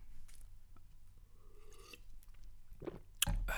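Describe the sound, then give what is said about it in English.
Wet mouth sounds of someone sipping and swallowing lemon water, with soft gulps and a sharper smack near the end over a low background hum. “I'm drinking some lemon water. It's refreshing, nice and acidic goes down your throat, nice and smooth like.”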